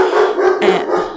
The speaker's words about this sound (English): sorry for the dog barking, but uh, but I'm not recording re-recording this whole thing.